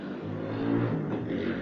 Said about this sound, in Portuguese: Moto, moto. É, é, não sei se deu pra ouvir, mas enfim. É, eu odeio. Eu odeio o cara que fica dando grau assim na moto de madrugada. Não entendo porque o cara faz isso.